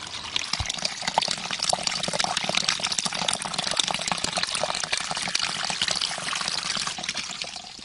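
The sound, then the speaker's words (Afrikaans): Water from a spring at Protea Village flows steadily, a continuous bright splashing and gurgling that stays even in loudness for the whole stretch, with no voices over it. “Wat ons hier dis dit waar die water wat nou is so loop.”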